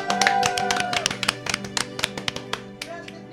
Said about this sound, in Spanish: Aplausos de la audiencia, por favor.